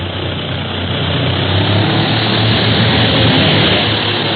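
A propeller airplane's engine roars loud and steady, a dense buzzing drone over a low throbbing hum that swells slightly as it noses down in a dive straight toward another airplane in flight, with no voices.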